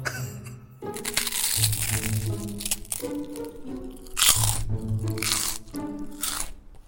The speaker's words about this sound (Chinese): 饼干、酥饼、巧克力都往嘴里塞，就一个人在那个寝室的床上就开始疯狂的吃